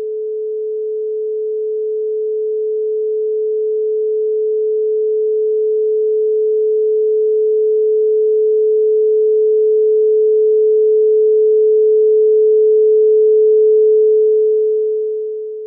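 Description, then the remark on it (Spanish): A single steady pure tone, a mid-pitched sine hum, holds unchanging for about fifteen seconds, swelling slightly louder over time before fading at the end. No voices or other sounds. “Bueno, les voy a poner una frecuencia 432, ¿ok? Para que la sientan y ahorita les voy a poner algo más.”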